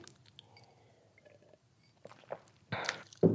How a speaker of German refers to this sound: ich habe 93 Frösche im, im Hals, das muss irgendwie die Frühlingszeit sein. Ich muss mal einen kurz, kurz Schluck Wasser trinken.